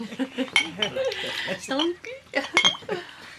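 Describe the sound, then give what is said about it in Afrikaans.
Glasses clink a few times, with short bright rings scattered over about three seconds, fairly loud, as drinks are handed out, while people talk over them. “Het allemaal nou een glaasje in de hand.”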